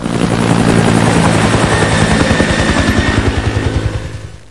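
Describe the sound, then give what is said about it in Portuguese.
A helicopter's rotor thumps in a steady, rapid beat over a dense engine roar in the helicopter simulator game North Sea Helicopter by Acrosoft from the Netherlands, loud throughout, easing off slightly at the very end. No one speaks. “Ele é um simulador de helicóptero.”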